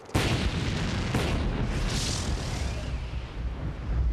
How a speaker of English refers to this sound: I, I guess if it gives us another big explosion